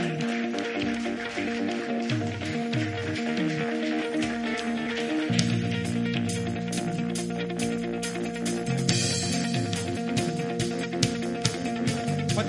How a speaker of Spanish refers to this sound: Dale un aplauso grande.